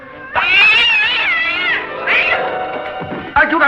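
A cat meows loudly: one long, wavering, drawn-out yowl, then a shorter call, and a third starting at the end, with no talking.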